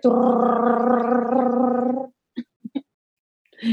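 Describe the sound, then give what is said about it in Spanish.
A voice imitates a drum roll with a sustained rolling, gargled trill for about two seconds, followed by a few short vocal hits like a rimshot flourish. “así que voy a hacer el sonido de los tambores imaginario”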